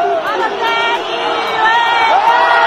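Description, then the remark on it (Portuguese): A loud stadium crowd of Verona fans roars continuously during an Italian league football match while many voices rise in drawn-out hooting "ooh" sounds, imitating monkey noises whenever the ball reaches a player, the chanting swelling in waves over the dense crowd noise. “ouvir a torcida do Verona quando a bola chega no Balotelli fazendo u u u, som de, como som, um som de macaco”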